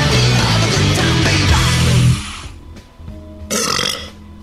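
A long, loud, resonant burp dominates the first two seconds, close and heavily amplified, followed by a quieter rumbling tail and a brief burst of noise.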